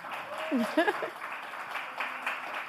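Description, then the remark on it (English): A steady wash of applause fills the whole moment, dense and moderately loud, with a brief voice rising over it near the start like a quick cheer. “everybody give a round of applause for that, man.”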